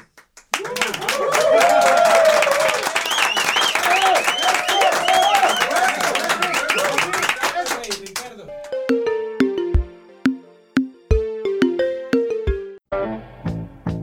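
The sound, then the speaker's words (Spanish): A crowd claps loudly and steadily for several seconds, with cheers and whoops rising over the applause, before it cuts off and a short plinking electronic melody takes over. “Palmas.”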